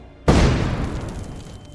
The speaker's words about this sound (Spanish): Un inimaginable trueno retumbó en sus oídos y una abrumadora onda de choque lo aplastó contra el suelo.